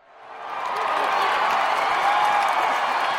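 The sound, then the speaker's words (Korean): A large baseball stadium crowd bursts into cheering after a strike is thrown, the roar swelling quickly over the first half second and then holding as a loud, dense, sustained wall of voices with a hint of clapping. “터지는 함성.”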